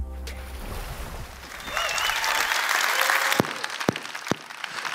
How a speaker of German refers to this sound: Ja, liebe Microchurches, liebe Locations, liebe Leute vor Ort und online, lasst sie uns mit einem großen Applaus auf unserer Bühne begrüßen.